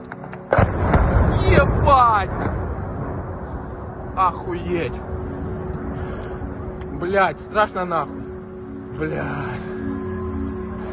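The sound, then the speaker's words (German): A sudden loud, rumbling blast erupts near the start and fades over a couple of seconds, followed by a few sharper bangs and shouting voices over a steady outdoor hum, as people shout excitedly and fire rifles trying to shoot down a drone, which then strikes. “Und das wirkt dann auch ein bisschen hilflos und unbeholfen und dann sieht man dann auch, wie die Drohne einschlägt oder hört es zumindest.”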